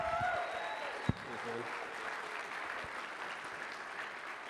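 An audience breaks into a steady round of applause, a dense wash of clapping that holds evenly throughout, with one sharp thump early on and a few whistles or cheers at the start.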